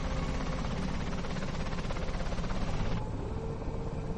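A helicopter roars as marines board it, a loud, steady wash of engine and rotor noise with a fast rhythmic chop running through it; the bright hiss softens slightly near the end.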